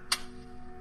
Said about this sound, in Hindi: घड़ी की सुई टिक टिक का शोर करती हुई आगे बढ़ती जा रही है